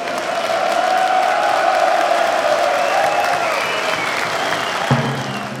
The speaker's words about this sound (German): Und dafür Applaus.